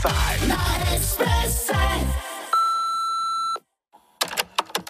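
A radio show's answering machine: after a short burst of jingle-like sweeping sounds, a steady electronic beep holds for about a second, then cuts to silence before a few sharp clicks and rustles.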